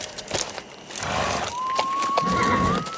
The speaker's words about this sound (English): Hark! I hear horses.